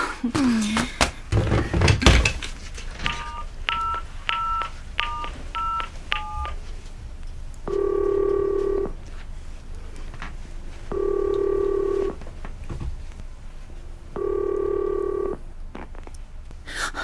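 A rapid run of about eight short electronic keypad beeps as a phone number is dialed, followed by three longer buzzing ring tones spaced a few seconds apart, with some handling noise at the start.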